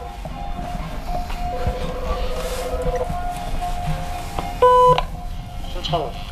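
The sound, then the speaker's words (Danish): A single short electronic buzz from a wall-mounted intercom being rung, about half a second long, over a steady rumbling, train-like background with faint murmuring voices. “han begynder at blive tydelig utålmodig og ringer på et samtaleanlæg, der hænger på væggen.”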